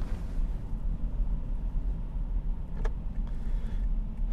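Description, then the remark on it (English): A steady low engine rumble and road roar from inside a car driving in heavy traffic, continuous for a few seconds, with a brief faint click midway and no talking. “Anyway, folks, I'm gonna I'm gonna wrap this up right now because um, there is so much traffic and I'm just a little getting wackadoodle in the in the brain thinking about it.”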